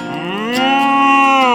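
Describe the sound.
A single long, loud moo from Marvin, the friendly, curious cow, starting low and rising in pitch before holding a steady, droning tone until it ends. No talking or other sounds.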